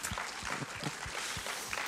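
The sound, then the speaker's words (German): Dense, steady applause from an audience, a continuous wash of many overlapping claps at even loudness with no voices on top. “Wow, geben wir doch dem Applaus.”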